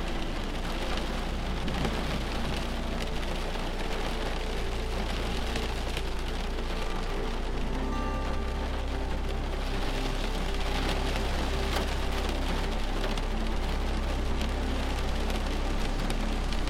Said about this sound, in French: Doucement, la pluie s'intensifie et vous entendez les gouttes rebondir sur la maison et sur la fenêtre.